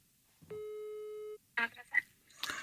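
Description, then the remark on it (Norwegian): A single steady telephone ringing tone while calling the switchboard of the Norwegian newspaper VG sounds for about a second, a flat electronic beep with harmonic overtones, followed by short bursts of voices speaking. “Vi ringer bare til VG, liksom? Eh, bare sånn nummer Sentralbordet?”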